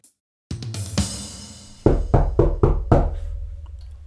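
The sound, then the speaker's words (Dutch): A series of firm knocks on a door, first a couple of scattered raps, then five quick, evenly spaced loud knocks, with no one speaking; a knock at the door on pakjesavond, the evening of 5 December. “Nou klopt daar nou? aan de deur?”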